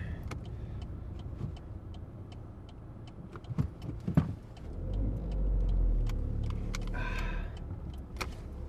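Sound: car being driven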